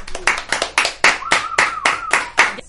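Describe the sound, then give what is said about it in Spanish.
Applause in a brisk, steady rhythm, about ten sharp claps in a row, with a thin whistling tone running faintly beneath the middle beats. “Aplausos para todos.”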